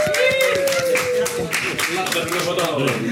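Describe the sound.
A crowd claps steadily for about three seconds, dense overlapping hand claps mixed with cheering voices and a brief high whistle-like tone near the start.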